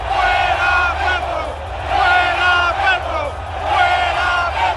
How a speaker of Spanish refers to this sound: Minutos antes de que la selección Colombia saltara a la cancha para enfrentar a Brasil, en las tribunas del metro se escucharon las voces de hinchas que al unísono pidieron la salida del presidente Gustavo Petro.